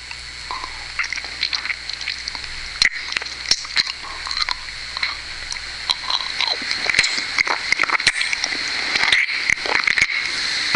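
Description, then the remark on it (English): Wet mouth sounds: rapid smacking, slurping and sucking clicks crackle continuously, with no voices, growing somewhat denser and louder toward the end. “You like the sucking noise?”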